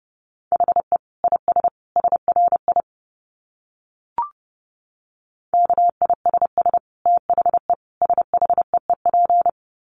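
Fast Morse code at 30 words per minute in a single steady mid-pitched tone, rapid short and long beeps in two runs split by a pause and a soft click, with no voices.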